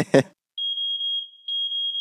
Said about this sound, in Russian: Внимание! Пожарная тревога. Срочно покиньте помещение.